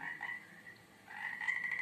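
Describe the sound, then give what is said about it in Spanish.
A chorus of toads croaking steadily in a lagoon, a large family of 43 toads, their overlapping calls forming a continuous buzzing drone that dips briefly and then swells again, moderately loud with no voices present. “En esa laguna vive una familia de sapos.”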